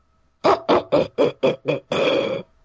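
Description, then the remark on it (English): A voice imitates a crow's laughing call: six quick, rough, throaty caws in a steady rhythm, ending in one longer drawn-out caw, fairly loud with no other sound. “Is it just me, or did that crow just laugh at us?”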